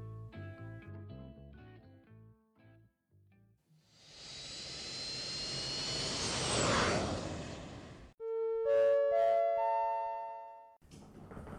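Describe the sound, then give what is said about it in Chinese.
A jet airplane roars past, a broad rushing engine noise that swells loudly over a few seconds and then cuts away, framed by short melodic chime tones before and after. No one speaks. “说罢，当天就收拾了东西，跟着阿懒上了飞机。”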